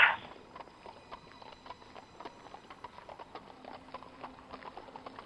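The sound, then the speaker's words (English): Horse hooves clatter in a quick, steady galloping rhythm, a dense run of sharp clip-clop beats, with no voices over them. “And all you could hear was the sound of, of hoof.”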